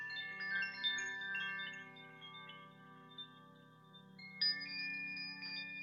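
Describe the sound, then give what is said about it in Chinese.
Soft wind chimes ring in shimmering, overlapping tones over a sustained low drone, with a brighter cluster of chime strikes near the end; calm meditation music played in the background of a guided breathing meditation, with no voices. “最后一次的吸气到吐气，可以跟着我在背景为大家放的风铃的静心的音乐，”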